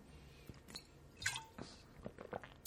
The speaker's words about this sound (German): Gut, meine Stimme schwächelt ein bisschen, insofern muss ich immer zwischendurch ein bisschen trinken, aber das kennt ihr ja von mir.